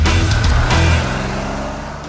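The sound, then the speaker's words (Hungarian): A short jingle for the car segment of the Millás reggeli radio morning show, built around a loud engine rev: a deep, throaty rumble swells for about a second, then gradually fades out. No one speaks. “hogy egy ilyen jó fél perc múlva derül ki, hogy már rég megy a szignál, és nem kéne pofáznom.”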